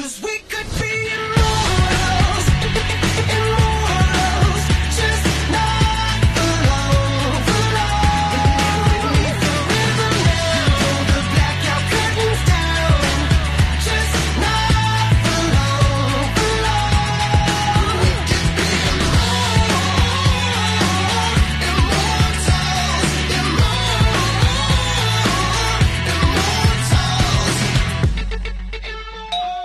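The theme song of the animated film Big Hero 6 plays loudly at a steady, dense level throughout, full band, with a pulsing bass line stepping between low notes under bright, busy upper layers.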